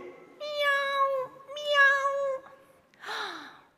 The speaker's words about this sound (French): Quand tout à coup, ils entendent miauler. Miaou, miaou. Ils cherchent d'où ça vient, mais on dirait bien que ça vient du mur.